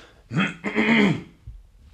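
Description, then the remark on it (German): A person clears their throat in two quick, rough bursts, a short harsh rasp followed by a longer gravelly one, then quiet. “Ich muss gerade mal kurz räuspern.”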